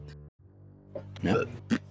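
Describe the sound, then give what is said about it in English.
A throaty burp rumbles out for a moment, followed shortly by a brief second guttural sound, with a low steady hum underneath and no talking. “I burped.”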